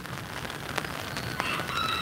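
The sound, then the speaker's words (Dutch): Steady rain patters down outdoors in an even hiss with a few sharper drop taps, while faint bird calls sound in the background toward the end. No one speaks. “Ik hoor het regent.”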